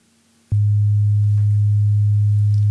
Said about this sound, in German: Äh, den verlängere ich jetzt einfach mal auf die Länge des Songs, so bis zum Ende durch. Das heißt, wenn der Song losgeht, dann habe ich hier genau diesen Sinuston einfach stehen. Der klingt so.